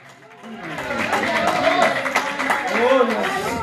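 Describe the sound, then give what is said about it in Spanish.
An audience claps hands steadily in praise to God at a night worship service, in a dense, continuous patter, mixed with many voices calling and singing over it. “Dile palmas a Dios en esta noche.”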